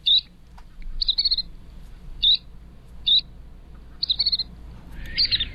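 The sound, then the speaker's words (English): Calls of the world's smallest shorebird: about six short, high, thin trilled chirps at irregular intervals, clear over a soft low background hum, with no voices. “Of all the shorebirds in the world, this one is the smallest.”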